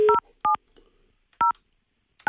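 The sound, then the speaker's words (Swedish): Four short, crisp telephone keypad tones beep in an uneven sequence as a phone number is dialed to call a lawyer, each a clear dual-pitched electronic blip separated by brief pauses, with no talking. “Eh, och eh, mm, vi ska ringa upp advokaten till den, den 16-åringen för att höra hur de motiverar detta, detta skadestånd.”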